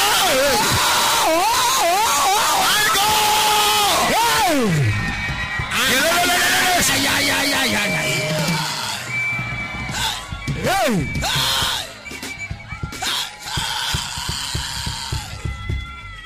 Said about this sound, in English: Somebody lift up your hands and shout, I receive. I receive. Receive I want you to clap your hands and make some crazy noise in the church. Yeah. Yeah. Yeah, I said crazy noise. Hey!